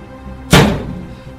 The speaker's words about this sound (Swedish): Du sätter ju båda pilarna i den här galjonsfiguren och de... Du inser ju vid ljud när de träffar här att det, det, här måste, de måste ju verkligen vara gjorda av, eh, av trä. För det, alltså när det smäller till.